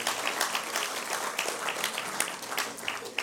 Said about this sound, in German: Wollen wir unserem Technikteam einen Applaus geben? Die machen es immer so großartig.